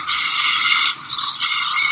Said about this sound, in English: that sound you hear is the robotic machine as he demos it to me over the internet